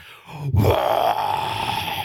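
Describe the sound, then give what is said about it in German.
A person imitates a lion's roar with one long, rough, growling vocal blast that swells quickly and holds steady for nearly two seconds, loud and throaty. “brüllt, wie ein Löwe halt so kann brüllen”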